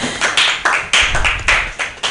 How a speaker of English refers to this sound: Yes, you guys are amazing crowd. Round of applause, round of applause for yourselves for coming out, supporting live comedy